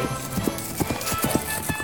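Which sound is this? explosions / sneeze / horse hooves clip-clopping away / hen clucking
horse hooves clip-clopping away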